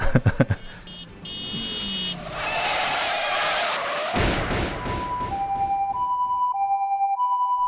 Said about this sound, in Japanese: なんかあの事故の交換音あるからちょっと事故ったことにししてみますか